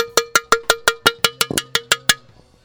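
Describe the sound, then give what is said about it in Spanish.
A horn sound effect fires off about a dozen quick, punchy blasts in a steady, rapid rhythm, loud, each ringing out briefly before the next, with no one talking. “Voy a tocar la, voy a tocar la bocina.”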